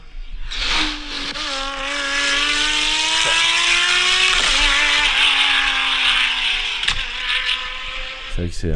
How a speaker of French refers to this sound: Hein, Écoutez ça, le bruit de cette voiture. Il y a tellement de. qui vont très vite, quoi.